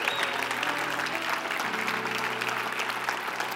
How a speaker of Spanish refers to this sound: Hay fiesta en el cielo. Pensé que iban a aplaudir más, no sé. Pensé que iban a alegrarse más, no sé.